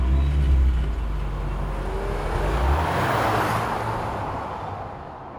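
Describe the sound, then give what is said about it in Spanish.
A stolen car's engine is started by the thief beside the Congreso de los Diputados in Madrid, running with a deep low rumble, then revs up and pulls away, the sound swelling and thinning out as the vehicle drives off. No voices. “abre la puerta y consigue ponerlo en marcha. En un visto y no visto, Ponce desaparece a bordo del vehículo robado”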